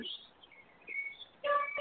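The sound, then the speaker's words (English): Small pet birds chirp and tweet indoors, a few thin, high chirps scattered across the moment, with a brighter burst of calls near the end, fairly quiet overall. “I can hear the birds where you are.”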